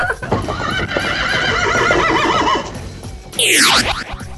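A horse whinnies with a long, shaky, wavering call, falls briefly quiet, then lets out a second loud, high neigh that sweeps downward, with hooves clip-clopping beneath, clear.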